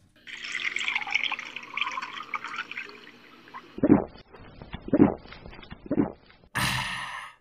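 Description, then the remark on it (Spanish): Water pours steadily into a glass for a few seconds, followed by three distinct gulping swallows at regular intervals, then a short burst of rushing noise at the end. No one speaks. “¿Me permitiría beber un poco de agua, estimado …?”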